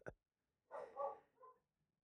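A dog barks outside, two or three muffled barks in quick succession, faint against an otherwise quiet background.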